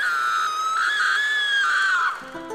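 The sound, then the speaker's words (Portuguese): A long, piercing scream holds steady at high pitch for about two seconds, then trails off abruptly, loud, like a horror-film shriek. “Quer ver que a próxima notícia vai ser proibido gritar no cinema na projeção de filmes de terror?”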